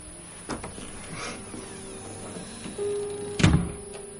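A door shuts with a solid, loud thud near the end, preceded by a soft click and a brief low creak as it swings, as a woman leaves and closes the door behind her; no one speaks.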